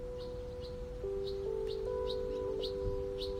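many birds chirping

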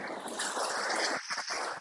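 ocean waves

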